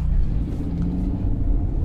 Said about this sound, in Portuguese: Estou em Belo Horizonte, muito trânsito, e pensei, por que não compartilhar esse momento em que o carro está parado aqui, trânsito, para compartilhar informações com vocês.